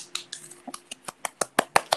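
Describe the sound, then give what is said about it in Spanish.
Quick, steady hand clapping with about a dozen sharp claps in a fast, even rhythm, with no one talking. “Estaba aplaudiendo por si no me escucharon, porque sí, eh, sí.”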